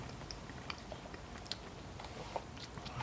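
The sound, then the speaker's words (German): Chewing of a firm food sample during a tasting, with steady jaw movements and small crunchy clicks repeating over a few seconds, no talking. “Der kommt mir auch also relativ fest zum Kauen vor.”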